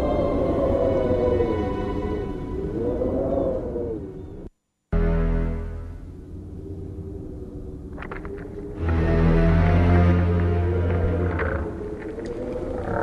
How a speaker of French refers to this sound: Déjà, à distance, j'entends son horrible voix qui domine le vent.